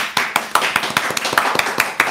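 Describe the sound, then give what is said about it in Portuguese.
Steady, rhythmic hand clapping for a guest on the live show Sem Corte, about a dozen sharp claps in quick succession, fairly loud, like one or two people applauding with no voices. “Palmas pra ela, minha gente.”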